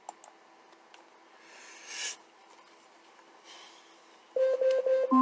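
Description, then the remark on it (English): An Alexa smart speaker timer alarm goes off near the end: a quick run of loud, evenly spaced electronic beeps that shifts pitch at the last tone, following a quiet stretch of faint rustling. “When I tell you to stop a timer, you stop a timer immediately.”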